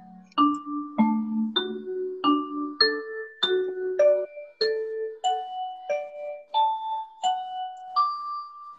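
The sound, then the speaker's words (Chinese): A school bell chimes out a slow melody for the end of class, about fifteen clear, ringing tones stepping up and down in pitch, each note sustaining and overlapping the next, with no talking. “这是下课钟声吗？”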